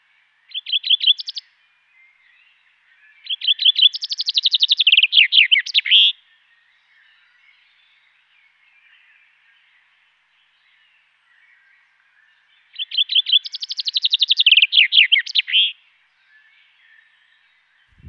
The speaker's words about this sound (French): Le pinson des arbres. Ça, je ne connaissais pas. Le pinson.